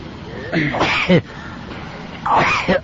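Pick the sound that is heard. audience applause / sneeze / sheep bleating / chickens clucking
sneeze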